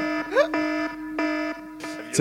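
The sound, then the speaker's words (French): A buzzy electronic quiz buzzer sounds: a quick rising swoop, then two sustained, harmonic-rich tones of equal pitch with a short gap between, ending in a brief, busier burst. “la douce sonnerie a retenti.”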